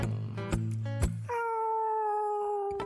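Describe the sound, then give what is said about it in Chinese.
A black-backed, white-bellied cat yowls loudly outdoors in spring in drawn-out, wavering cries, first low and throaty with a few sharp breaks, then rising into a sustained, higher-pitched wail that holds steady to the end. “可是春天来了，它也会出去乱叫。”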